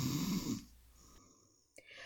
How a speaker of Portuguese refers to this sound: Ele estava roncando muito alto.